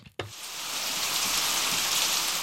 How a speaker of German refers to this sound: Wohl jeder von uns hat es schon einmal live erlebt. Starkregen, der auf die Straße prasselt und diese in wenigen Minuten flutet.